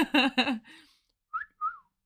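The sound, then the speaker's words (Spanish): A brief vocal sound, then a person whistles two short notes toward the microphone in quick succession, each sliding slightly in pitch, like a mimicked whistle call. “No, porque además a veces hace el silbado este de. No, silbado hacia el micrófono.”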